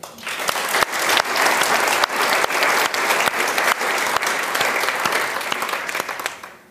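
An audience applauds steadily for several seconds, a dense, even wash of clapping with a few sharper individual claps standing out, fading slightly at the end.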